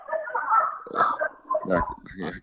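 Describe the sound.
A dog named Roy barks a few times in short, sharp bursts, with faint muffled voices underneath.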